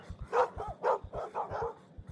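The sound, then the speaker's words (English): Two dogs, Mick and Chevy, bark sharply, about five or six quick barks in an uneven burst, as they spring up under a table and knock chairs over, with soft low thumps scattered underneath. “But it was just Mick and Chevy springing up under the table, barking, knocking chairs over in their haste to retreat further from the open door.”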